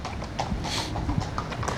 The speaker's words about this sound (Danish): Nu kommer der så nogle heste nu med betjente på her. Iført mundbind og ridehjelme og heste. Heste med sådan et dækken over, faktisk, hvor der står La Police Nationale på siden.